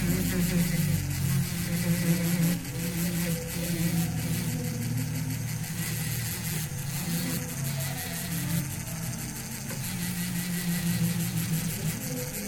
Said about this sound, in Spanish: Una lija es un chicote para poder, este, con tipo esmeril, tipo taladro para poder darle la lija. Para quitarle la raya de la lima. Y este, suavizándolo más.